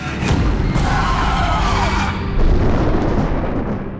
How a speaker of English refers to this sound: Before he could go on, the booming crash of thunder filled the air.